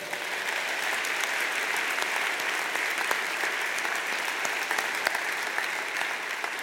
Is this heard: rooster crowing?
no